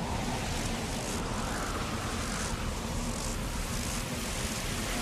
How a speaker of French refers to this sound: Il y a la neige et le vent glacé.